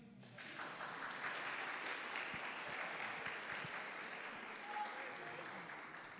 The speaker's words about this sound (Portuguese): Esse casal de jovens. Pode aplaudir, irmão.